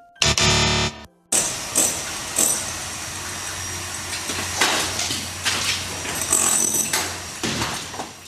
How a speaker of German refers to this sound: Das klingt nach Baulärm und nach Immobilien.